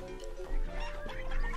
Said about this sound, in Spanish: Algo más tarde, los tres fugitivos llegaron a una granja. Encaramado sobre el portal, un gallo gritaba a voz en cuello